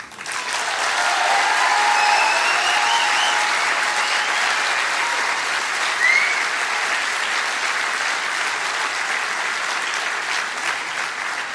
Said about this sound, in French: Et il faudra maintenant faire avec le fait que le podcast français aura à jamais son 11 juin 2019 avec l'événement que nous vivons ensemble ce soir. Et ça, je pense que ça s'applaudit aussi.